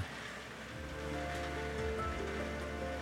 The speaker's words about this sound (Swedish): Oj, nu regnar det verkligen här utanför. Ja, det hör ni säkert.